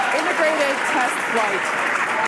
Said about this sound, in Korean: 와, 이게 소리가 이렇잖아. 이게 뭐야? 뭐, 되게 기뻐하는 것 같고, 뭐야? 왜 이렇게 환호가 더 커져?